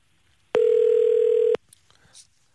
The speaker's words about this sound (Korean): 6023님한테 전화 한번 걸어보겠습니다. 자, 6023님, 예, 전화 한번 걸어주세요.